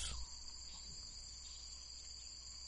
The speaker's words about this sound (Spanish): Los ruidos de la selva vienen de los árboles y del suelo es como una caja de ruidos que hicieran sonar las